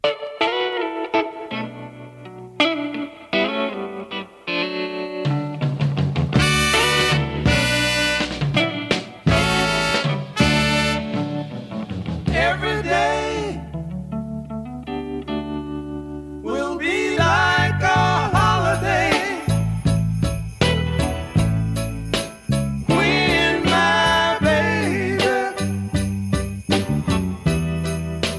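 A soul song plays at full volume: bright chiming chords over bass and drums, with sustained horns or strings swelling in the second half. No speaking voice interrupts the music.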